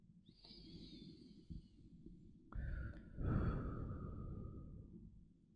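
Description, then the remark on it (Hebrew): A slow, deep breath drawn in and then let out in a long, airy exhale, soft, with no talking over it. “אז אני רוצה שבאמת תקחי ככה נשימה מאוד עמוקה.”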